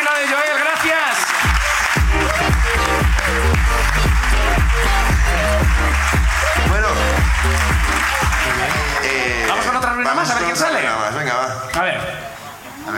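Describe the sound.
Sustained audience applause and cheering fills the whole stretch, loud and steady, with voices and a low, throbbing musical backing running underneath.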